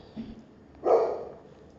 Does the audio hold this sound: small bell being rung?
no